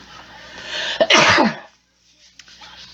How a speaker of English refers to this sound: And I got a sneeze, or at least I feel it. Hold on.